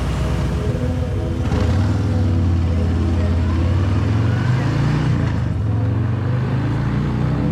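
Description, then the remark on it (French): A motorcycle engine drones steadily as it rides through the empty streets of a capital city on a warm night, its pitch climbing as it accelerates through the middle, then settling into a sustained roar for the full length. “Son corps se confond dans le mien, alors que la moto traverse les rues vides de la capitale.”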